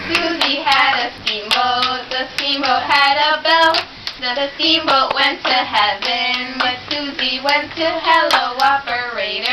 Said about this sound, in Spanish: Que van sincronizando palmas mientras cantan y que se llama Hello Operator, que a esa ah. se le unió esta.